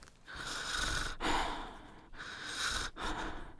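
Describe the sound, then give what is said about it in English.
Someone imitates a Spanish teacher's heavy mouth breathing, loud: two slow, raspy cycles of inhaling and exhaling with brief pauses between, and no talking. “she was breathing like really heavy”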